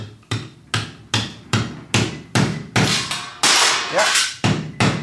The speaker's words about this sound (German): Da können wir einen ranhämmern.